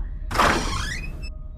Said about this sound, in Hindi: जैसे ही उसने घर का दरवाजा खोला